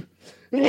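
A single sudden, explosive sneeze-like burst erupts after a soft breathy intake, loud, broad and noisy with a sharp onset.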